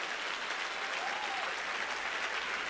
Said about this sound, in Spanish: Dale fuerte ese aplauso al Señor.